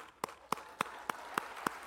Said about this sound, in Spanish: Es más, yo mismo me voy a aplaudir.